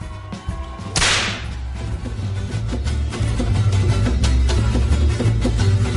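A single sharp whip crack snaps out near the start, loud, over a steady bed of upbeat music with a heavy bass beat that continues to the end.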